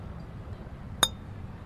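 Two glass bottles, one of Boylan Bottle Works diet root beer, tap together once in a toast, a single bright clink with a short ringing tail, set against a quiet low background rumble.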